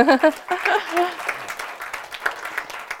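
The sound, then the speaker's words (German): A burst of audience applause, many hands clapping in a dense, crackling patter, with voices and cheers rising over it at the start before the clapping continues steadily. “Wow, es verdient auch einen Applaus.”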